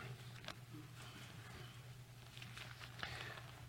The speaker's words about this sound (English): I hear pages turning. I'll pause for a second.